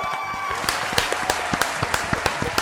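Applause from a small group, with sharp claps landing in a steady, fairly quick rhythm over a dense wash of scattered clapping and crowd noise. Nobody speaks.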